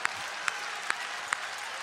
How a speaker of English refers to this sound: Come on and clap those hands and give God some praise.